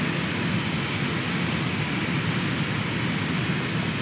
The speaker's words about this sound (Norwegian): Det er toget. Ja. Så derfor så lar vi da toget passere forbi, og så fortsetter vi praten når den er ferdig.